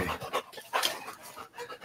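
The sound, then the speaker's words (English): A big dog, Waylon, the company mascot, pants rapidly with quick rhythmic breaths in bursts over a couple of seconds, no talking. “Speaking of big overgrown dogs creatures.”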